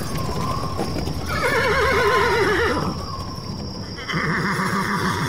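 A horse pulling a cart whinnies twice in long, quavering cries, over a steady background of hooves clip-clopping and the cart rolling along, in the rain near nightfall. No one speaks.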